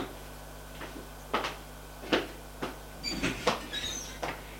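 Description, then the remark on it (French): A woman opens a door into a bedroom: a string of wooden clicks and knocks from a latch and handle, then a short, faint creaky squeak as it swings, with no voices. “Puis, elle va ouvrir une autre porte.”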